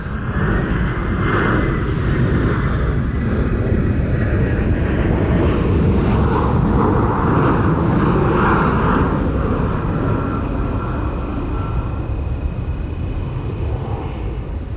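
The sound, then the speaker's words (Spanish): A loud, steady aircraft engine roar at an airport, deep and rumbling with a faint whining tone on top, continuing without a break for about fifteen seconds and no voices. “No hay una incompatibilidad en el tema de ruido entre el aeropuerto y los espacios naturales.”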